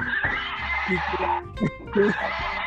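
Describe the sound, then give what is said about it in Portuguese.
A person imitates a horse's neigh with a shaky, wavering whinny, fairly loud, surrounded by brief vocal noises and background murmur. “o cavalo tá que tá, ele não aguenta. Ele tem que dar o ar dele.”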